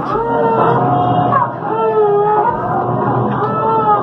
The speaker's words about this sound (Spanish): Y así suena la lavadora. Así suena la lavadora, pobrecito. Hay que comprarle una nueva.